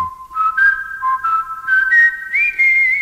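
A clear, sustained whistled melody from a 1950s American pop recording, gliding between held notes with soft accompaniment underneath, steady and fairly loud with no voices.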